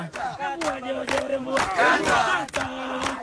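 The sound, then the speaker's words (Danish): A large crowd chants and sings together in unison, a loud, sustained mass of voices with rhythmic swells and sharp shouted accents, like supporters in a stadium. “Du ved, hvad de egentlig synger.”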